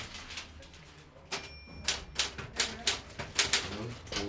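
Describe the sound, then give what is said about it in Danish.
A typewriter in a small office at a station clacks away, its keystrokes landing in quick irregular bursts that grow louder and more insistent partway through, with a faint low murmur underneath. “Og derudover så har vi et, et lille kontor stillet til rådighed, der kan stå et enkelt skrivebord og en skrivemaskine.”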